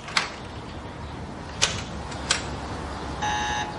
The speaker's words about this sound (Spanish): Para la alarma y observa la lectura de un contador. 8 milirongen.